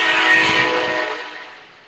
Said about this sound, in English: Uh, wow, uh, that was a railroad car, maybe. Yeah, you, you, get, you got another one coming.